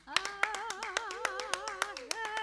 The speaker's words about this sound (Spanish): Señoras y señores, el fuerte aplauso para Lorena Astudillo.